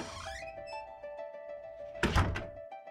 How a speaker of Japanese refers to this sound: 朝もこの時間に聞こえる開いて閉まるドアの音私に気を使ってできるだけ音を立てずにいつも出ていく彼静けさの中に小さく響く彼の音を布団にくるまりながら聞くのが私は好き。